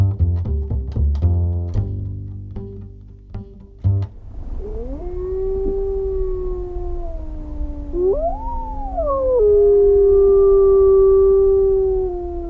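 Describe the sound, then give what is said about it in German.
Several wolves howl together in long, wavering tones that rise and fall, one voice swooping higher, following a short burst of percussive plucked notes at the start. “Schon mal gehört sowas? Ich meine, abseits von Naturdokus und Historien, Spiel- oder gar Horrorfilmen?”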